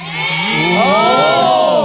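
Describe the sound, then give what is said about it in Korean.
Many fans gathered outside the studio cheering in a loud, sustained swell of high-pitched squeals and screams from many voices at once, rising in intensity after the first moment and holding steady to the end. “지금 많이 응원을 해주고 계시니까요”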